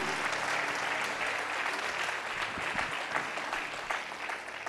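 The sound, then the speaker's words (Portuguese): Sustained audience applause, a dense steady wash of many hands clapping at a fairly even loudness for several seconds, with no voices standing out. “Aplaude forte, aplaude na sua casa.”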